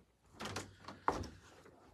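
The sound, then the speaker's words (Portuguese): A studio door suddenly opens with a brief scraping slide, then a sharp latch-like knock mid-clip followed by a softer rustle, fairly quiet overall, with no one talking. “Tava sozinho no estúdio, quando eu vi a porta abre do nada, assim, eu...”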